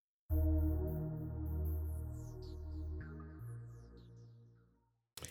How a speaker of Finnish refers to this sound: kolme uutta suomalaista kappaletta